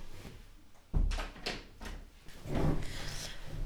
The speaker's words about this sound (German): ähm, ich mache mal kurz die Tür zu.